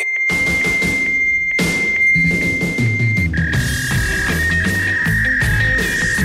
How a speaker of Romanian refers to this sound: v-am dat ton de fax, v-am dat totul, practic, tot sufletul nostru este în acest ton de fax